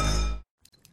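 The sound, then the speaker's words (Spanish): A bright, ringing clink of glasses tapped together in a toast, loud, its tone cutting off abruptly before faint, muffled background sounds follow. “Y eso sí que amerita un brindis, ¿no crees?”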